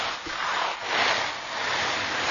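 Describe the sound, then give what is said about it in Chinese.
Steady granular rustling and hissing from soybeans shaken in a small dustpan as a dubbing sound effect imitating rain, a continuous patter that swells and eases in waves over a couple of seconds, with no voices. “哦，下雨就是用这个黄豆在这个，在这个小簸箕里，然后接着就说这下雨的声音啊。”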